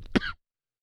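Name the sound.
coughing and throat clearing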